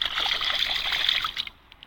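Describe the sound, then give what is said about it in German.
A hand swishes and rustles through warm, shallow sea water at the water's edge of a beach on a windless day, giving continuous trickling and splashing for over a second before tapering into a few faint drips. “Aber so, ich bin jetzt vorne an der Wasserkante angekommen. Achtung, ich raschel mal.”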